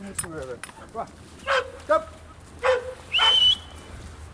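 A police search dog gives a few sharp, excited barks in quick succession, then lets out a high, drawn-out whine, fairly loud.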